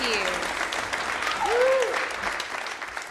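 A crowd at the Red Barn Radio live show claps steadily for about three seconds for a performer, a dense wash of applause with a brief whoop or cheer rising out of it near the middle.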